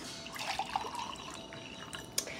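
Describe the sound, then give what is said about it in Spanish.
Peach-flavored water trickles and drips steadily into a container, a soft continuous splashing with a sharp little clink near the end; no one speaks. “Agua de durazno.”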